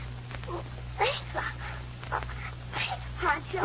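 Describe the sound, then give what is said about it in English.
A puppy named Prince, belonging to a little boy, whimpers and lets out short, high yaps in scattered bursts over a steady low electrical hum. “Little pup belongs to a uh, little boy named Jimmy.”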